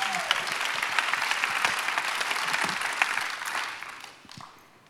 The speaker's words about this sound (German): Applaus für unsere